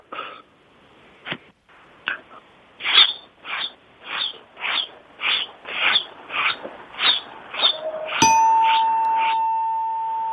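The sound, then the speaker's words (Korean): A person does a vocal impression of a chick peeping, a quick, steady run of a dozen or so short, squeaky peeps, then a bright ding rings out and lingers. “그 병아리가 삐약삐약 거리는 소리를 정말 똑같이 할 수 있습니다.”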